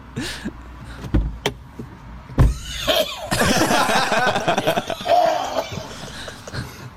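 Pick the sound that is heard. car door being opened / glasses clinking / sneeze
car door being opened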